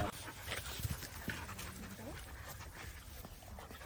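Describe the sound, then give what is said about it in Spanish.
Puppies yip and pant in short, scattered bursts at a fairly quiet level, with steady background noise and possible voices in the mix. “Pero yo salí con los cachorros, estos no le hacen nada.”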